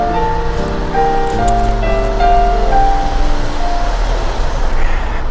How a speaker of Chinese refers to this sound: 地铁好像来了